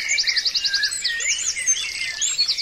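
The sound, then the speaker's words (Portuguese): A busy chorus of small birds chirping and singing at once, with rapid repeated tweets and overlapping warbling calls filling the air continuously. “O dia foi passando, a passarinhada falando, piando, cantando, sem decidir nada.”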